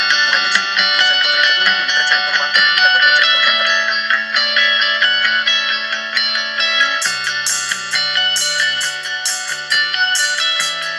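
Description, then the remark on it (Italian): A bright, upbeat electronic intro tune plays on its own in the VLC player, dense with harmonics and effected tones, with a lower bass line shifting after about seven seconds and crisp percussive hits added. “la musichetta è bella.”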